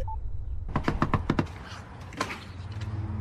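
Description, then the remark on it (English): In a film scene, a quick run of about six sharp knocks on David Beckham's wooden front door by a character come to apologize, fairly loud, followed by a pause and one more single knock against a low background hum. “so he keeps he knocking on his door.”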